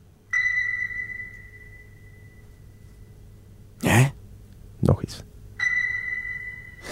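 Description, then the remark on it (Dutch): A high C played on a piano through an amplifier with a rotating loudspeaker rings out with a pure, sonar-like ping and fades away as the speaker turns away; after a brief voice speaks, the same bright note sounds again. “speelde Rick een hoge C op zijn piano en die klonk zo.”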